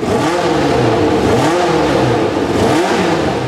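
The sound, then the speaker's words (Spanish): A Formula 1 race car engine revs loudly and continuously, its high whine surging up and down in pitch several times, with no voices; the car of Roberto Guerrero, the first Colombian Formula 1 driver, racing in 1982. “Roberto Guerrero, el primer piloto colombiano de Fórmula 1, compite con el Lobo de café de Colombia en su carro.”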